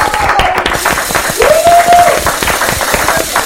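Steady applause fills the whole moment, a dense run of quick, sharp claps at an even loudness, with a brief high whistle-like tone sliding up and holding partway through.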